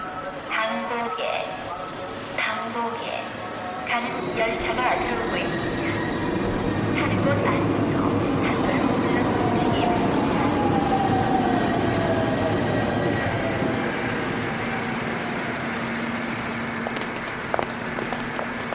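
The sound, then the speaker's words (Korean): A subway train going to Seoul runs with a loud, steady rumble for the whole stretch, a thin metallic whine gliding across it and brief clanks and rattles early on. “만일 은주가 그날 서울로 가는 지하철을 타지 않았더라면 어떻게 됐을까요?”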